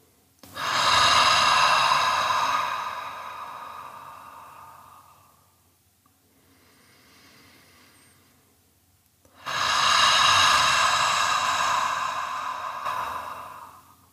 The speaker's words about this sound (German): Nimm einen tiefen Atemzug, fühl deinen ganzen Bauch- und Brustraum und atme dann ebenso tief und gerne auch hörbar aus.